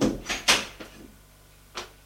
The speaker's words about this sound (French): Elle entre et ferme la porte.